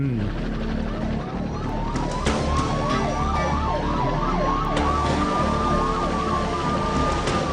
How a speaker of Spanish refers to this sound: Ahí aparecen todos los coches de la poli persiguiendo a Thelma y Luis.